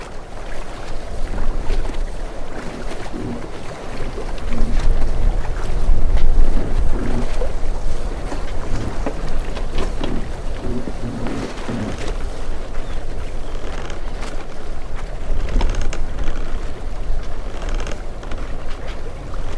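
A boat cruising over the open Mediterranean Sea in a Greek archipelago, its low engine rumble and rushing wash steady throughout, with gusts of wind buffeting. No voices, just continuous, fairly loud motion noise.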